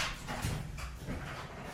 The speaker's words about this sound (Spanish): Aguántame que el perro está enloquecido. sí, se lo escucha el perro.